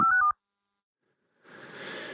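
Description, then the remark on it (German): A quick run of beeping electronic phone-line tones cuts off abruptly into dead silence, followed by a rising wash of hissy line noise as a mobile phone call from the Polish-Ukrainian border drops, the mobile network overloaded by many users. “Jetzt ist die Verbindung unterbrochen.”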